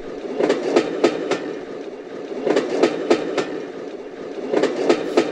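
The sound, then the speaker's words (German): A train carriage rolls steadily over rails, its wheels striking track joints in repeated clickety-clack clusters of four beats over a continuous low rumble, heard from inside the wagon. “Ich bin nur überlegen, ob mir schon eine Geschichte einfällt, wo ich mal irgendwie was in der Eisenbahn erzähle, dass wir irgendwo in einem Waggon sind.”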